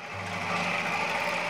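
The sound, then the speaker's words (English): An early bread slicing machine, a giant metal box with a row of super sharp blades pulsating up and down, runs with a steady, continuous mechanical whir, a low motor hum underneath and a bright rattling buzz on top, no voices. “This is the sound of an early bread slicing machine.”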